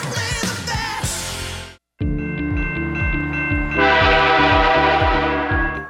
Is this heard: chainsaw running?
no